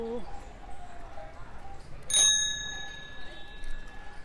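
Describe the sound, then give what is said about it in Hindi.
A single bright ding of a bicycle bell rings out midway during a bike ride, its metallic tone lingering and fading over a couple of seconds against a low, murmuring outdoor background. “घंटी नहीं सुनाई देती”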